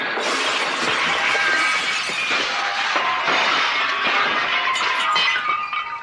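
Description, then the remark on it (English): A long, loud crash of shattering greenhouse glass as a woman falls into it, a dense bright cascade of breaking panes and tinkling shards that keeps going for several seconds without any talking. “Oh, thank God, the greenhouse broke her fall.”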